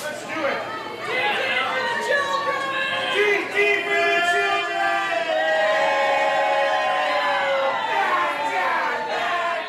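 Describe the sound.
A busy crowd at Pike Place Fish Market in Seattle, Washington, where staff throw salmon across the counter, fills the air with steady overlapping chatter and shouting voices, a dense, continuous murmur with some raised, drawn-out calls rising above it.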